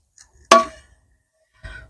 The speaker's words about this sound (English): my kettle's on the stove so just drying out that's what that noise was